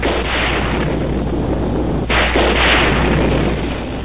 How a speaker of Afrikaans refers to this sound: Toe hy die weerstrale sien en die harde geraas hoor waarmee dit in die grond vaslaan, skrik hy baie groot.